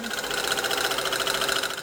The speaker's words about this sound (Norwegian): symaskina fortsetter å gå på bunadhuset i Stavanger.